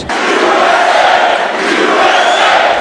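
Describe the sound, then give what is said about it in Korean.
A large crowd of more than 500 supporters at Donald Trump's Mar-a-Lago residence in Florida cheers and shouts continuously as Trump appears, a dense, loud roar of many voices with no pauses, swelling slightly toward the end. “이날 트럼프 전 대통령의 마러라고 자택에는 500명 이상의 지지자들이 운집했으며 이들은 트럼프 대통령이 모습을 드러내자 환호와 함성을 쏟아냈습니다.”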